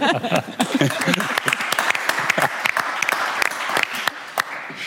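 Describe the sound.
Sustained applause from an audience for a guest being greeted by the host, a dense patter of many hands clapping at steady loudness, with some voices mixed in during the first second.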